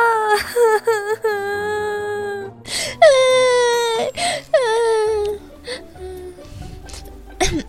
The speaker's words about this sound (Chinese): 一大早的就跑到我这儿鬼哭狼嚎的，看来是有冤情啊。